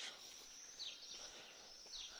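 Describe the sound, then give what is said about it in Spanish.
Faint birds chirping, with a couple of short high tweets rising over a steady background hiss. No one speaks. “Los pajaritos.”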